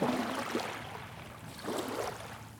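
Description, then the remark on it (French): Waves break against a jetty in a small port behind Malo, Dunkirk, under a grey sky, in two rushing surges, each swelling into broad splashing noise before receding into a steady watery wash. Moderately loud, with no voices. “Des vagues sur une jetée.”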